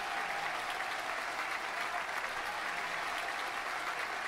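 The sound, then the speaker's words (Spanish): A church audience cheers and applauds steadily, a dense, continuous wash of clapping with scattered shouts that holds at an even level throughout, with no speech over it. “Hagan ruido si se están preparando para elevarse en este lugar.”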